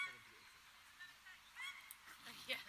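A pair of paradise ducks honk in a scatter of harsh, nasal calls, fairly faint, across the open grass of a local park in autumn while an unleashed dog chases them, with a few louder honks near the end.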